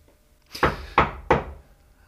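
household object, knocking on a door

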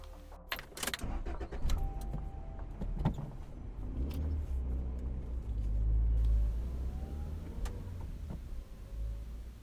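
vehicle, car driving

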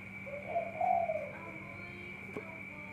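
bird, bird calling

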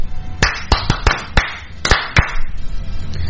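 crowd, applause

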